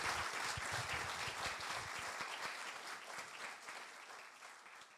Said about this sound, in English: All right, let's give a round of applause to the Cate and James for a wonderful talk today.